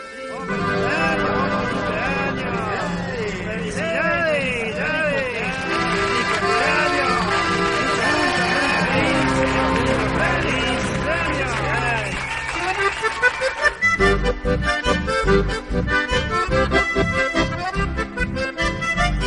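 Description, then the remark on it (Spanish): A festive birthday song, played for everyone celebrating a birthday, plays loudly: sung vocals with sliding melodic lines over bright instruments, shifting partway through into a punchier, steady rhythmic beat. “Pues allá vamos, para todos los que estén cumpliendo añitos.”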